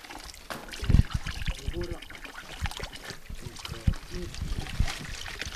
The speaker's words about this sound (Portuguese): Água fresquinha. A água insiste em correr serra abaixo.